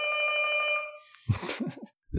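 household object, doorbell ringing

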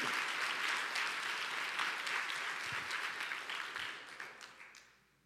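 crowd, audience applauding loudly

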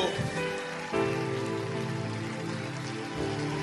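crowd, audience hand clapping

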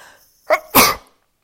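human body sound, sneeze

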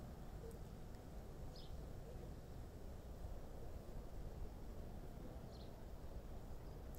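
bird, birds chirping outdoors

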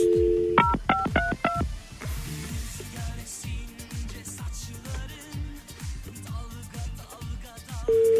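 signal or alarm, telephone number being dialed

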